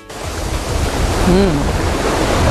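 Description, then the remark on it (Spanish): Steady roar of ocean surf breaking on a sandy beach, a continuous wash of waves rising slightly in loudness, with a faint tonal whistle briefly heard in the middle. “el rumor del oleaje estas olas que se nos acercan a la playa con su arena.”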